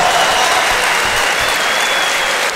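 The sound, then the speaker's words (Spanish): Loud, sustained applause from an audience, a dense wash of many hands clapping at once that stays steady and even throughout without letting up. “Fuerte, fuerte las palmas.”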